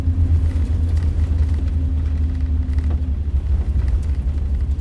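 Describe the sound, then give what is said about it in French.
A car's engine drones steadily from inside the vehicle, a deep continuous rumble with a faint tonal hum and constant road noise, no voices, as the car drives on winding mountain roads in the Syunik region of Armenia in early February, with snow and reduced visibility. “sur les routes en lacets dans cette région de montagne du Sionique, en ce début février, de la neige et une visibilité réduite, des conditions de circulation difficiles.”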